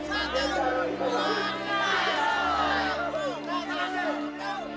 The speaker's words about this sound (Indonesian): Dengar mereka berteriak bersama. Mitologi agar batunya terangkat katanya. kalau batunya bisa ditarik syaratnya harus bicara kotor.